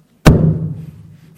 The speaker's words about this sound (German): hm, ich klopfe auf dieses Mikrofon